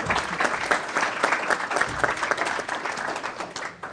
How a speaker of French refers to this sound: Mais levez-vous, et encore là, une main d'applaudissement pour tous ces gens.